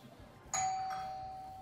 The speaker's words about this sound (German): Ja, und dann, ding dong, klingelt es an der Tür.